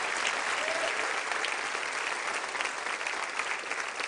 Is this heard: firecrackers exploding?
no